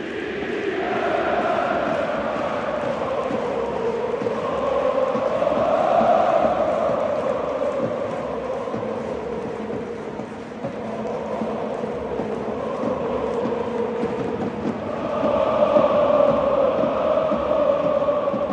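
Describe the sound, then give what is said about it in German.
A huge stadium crowd of Borussia Dortmund (BVB) fans sings a club anthem in unison after the final whistle, a steady, swelling chorus that rises and falls in melody, sounding broad and reverberant, with no one speaking over it. “es war mucksmäuschenstill erst und dann hat sich das, äh, das breit gemacht, ähm, dieses Lied, was wir eben gehört haben.”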